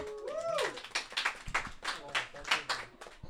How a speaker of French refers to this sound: Vous pouvez applaudir.